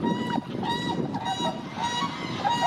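Trumpeter swan calls: loud, brassy honking notes repeated in overlapping bursts, several birds calling over a steady background wash, with no speech.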